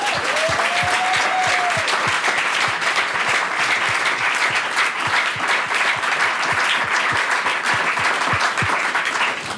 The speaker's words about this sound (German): Und an der Stelle könnt ihr noch mal einen fetten Applaus an den SWR geben. Ja, danke SWR.